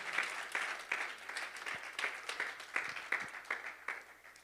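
An audience breaks into sustained applause offered to the Almighty in the morning, dense overlapping claps forming a steady, moderately loud wash with a few sharper individual claps standing out, no voices heard.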